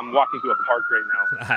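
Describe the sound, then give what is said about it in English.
A steady, slowly rising siren wail from an emergency vehicle runs through the background, moderately loud and continuous, while a person talks over it and briefly laughs. “Sorry about the sirens in the background there.”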